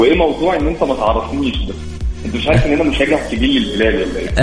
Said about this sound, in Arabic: بس الصوت فيه صدى كذا شويه تسمعني من الجوال دايركت لانه في صدى شويه كذا نبي نسمع صوتك بوضوح